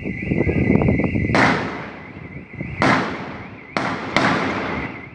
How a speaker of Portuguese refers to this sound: Vídeos mostram o tiroteio. Os policiais pedem que os criminosos se entreguem. Eles se negam e os disparos aumentam.